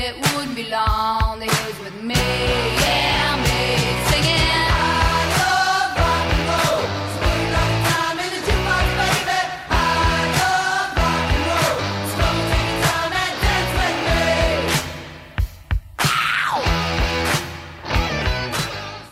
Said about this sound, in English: This song opens with growling guitars and a simple backbeat by drums and claps. The rebellious song about, well, rock and roll.